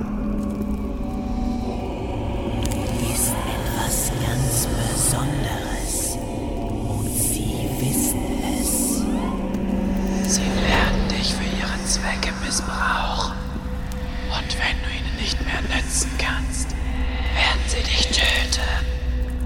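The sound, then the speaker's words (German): Several eerie, breathy whispering voices hiss and overlap continuously, unintelligible, drifting over a steady low droning rumble that fills the background throughout. “ich höre Stimmen.”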